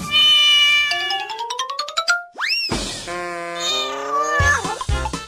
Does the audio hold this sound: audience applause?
no